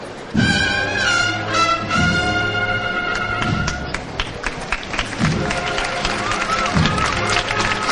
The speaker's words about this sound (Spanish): escuchan aplausos, pero, poco. de hecho, fíjate la diferencia de una levanta de la levantadas que hemos escuchado a las levantadas que hemos escuchado antes.